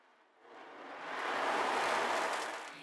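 Metal beads rolling inside an ocean drum make a soft, hissing wash like surf, swelling gradually to a peak and then easing back. It's steady, with no voices.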